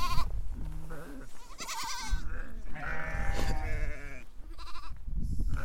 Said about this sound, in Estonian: jõuame Tuule käes kohale ajaks, kus kitsed ja lambad jooma tulevad ja suure jooksuga suured ja väikesed joogipaiga poole kappavad